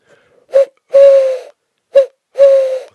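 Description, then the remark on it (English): A person blows into cupped hands to imitate an owl, giving two breathy hoots in a short-then-long pattern, repeated twice with a brief pause between pairs. “The skill that I want you to learn, wait for it, is how to make an owl noise using just your hands and mouth, like this.”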